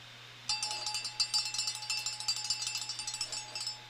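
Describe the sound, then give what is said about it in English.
A cowbell rattles in a rapid, steady stream of metallic clanks for about three seconds, fairly faint, over a low electrical hum with no voices. “We need a cowbell.”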